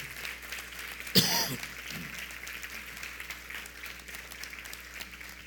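An audience applauds steadily throughout, a dense crackle of many hands clapping at moderate volume, with one sharp louder burst early on; no one speaks over it.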